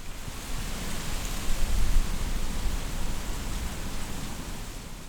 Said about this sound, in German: die Blätter des Feld- und Spitzahorn mit ihrer großen Resonanzfläche ergeben einen relativ definierten Klang, der wie ein plätschernder Bach klingt.